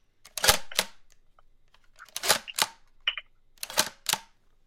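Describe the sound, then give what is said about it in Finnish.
The mechanical shutter of a Speed Graphic press camera fires three times as photos are taken, each a sharp double click with a short gap between, fairly loud with no talking. “Tältä kuulostaa avaaminen ja sitten kun kuva otetaan se kuulostaa tältä.”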